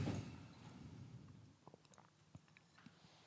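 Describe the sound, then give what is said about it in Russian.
A loud gulping swallow of a drink: a rush of wet sound at the start, then a few quieter throat clicks and swallows in an uneven rhythm, with no talking. “дам тебе э, глотнуть громко.”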